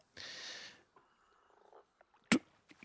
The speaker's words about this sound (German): Startet uns mit Ambient Sounds aus. Das hier ist Swamp Planet.